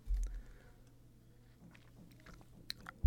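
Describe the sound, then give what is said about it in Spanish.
Quiet mouth noises of someone sipping hot coffee in an office: a soft low rumble at first, then small wet clicks and brief slurping bursts near the end, with no talking. “Ah, le acabaron un trago el café y me quemé la lengua, pero bueno.”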